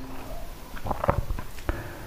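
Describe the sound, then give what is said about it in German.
A male cat gives a single short, fairly faint meow partway through, set against quiet background noise with a few soft taps and shuffles; no one speaks. “Mein Kater mauzt, weiß nicht warum.”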